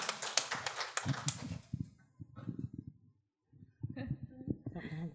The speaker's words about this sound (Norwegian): Så Haugesund kommune, de fortjener applaus. Ja.